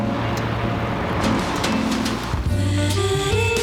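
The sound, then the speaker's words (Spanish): A vintage car's engine hums steadily as it drives through Monaco carrying McLaren driver Lando Norris, its tone rising toward the end, over a constant wash of ambient noise like surf, with faint bird chirps. No one speaks. “Como nos están viendo, es una toma hermosa de Mónaco, donde va un carro antiguo y va en el Lando Norris, piloto de McLaren.”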